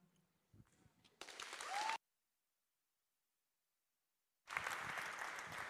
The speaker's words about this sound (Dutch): Wauw, wat een verhaal. En laten we nog meer een applaus geven voor deze persoon die het verhaal wilde delen. Dus come on.